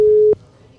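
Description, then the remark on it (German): A telephone busy signal as a call goes unanswered: one loud, steady electronic beep lasting about a third of a second, cutting off abruptly into faint background hiss. “der Kim, der geht nicht ans Telefon”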